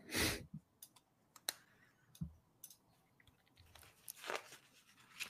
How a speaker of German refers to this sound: Lukas macht ASMR mit Lego-Geräuschen